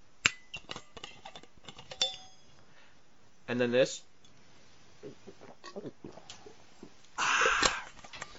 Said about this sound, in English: That's me opening my water thing, which I should be muting.